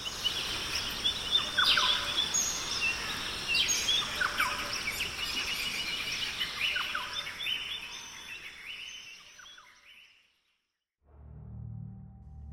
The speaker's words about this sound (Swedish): Flygplanet försvann iväg och det enda som var kvar var ljudet från djungeln.